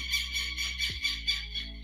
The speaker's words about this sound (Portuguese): o passarinho tá me atrapalhando.